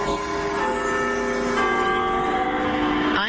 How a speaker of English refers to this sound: Big Ben ushers in 2024, exactly 100 years after this clock tower first became the centerpiece of New Year's celebrations here.